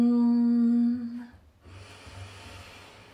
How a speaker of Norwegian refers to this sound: Og igjen pust inn.